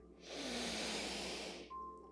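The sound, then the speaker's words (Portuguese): A single long, deep breath drawn in, a steady airy rush lasting over a second, then it stops abruptly as the breath is held for three seconds in near silence. “Então eu quero que você feche os olhos, que você faça uma respiração bem profunda e segure o ar por 3 segundos.”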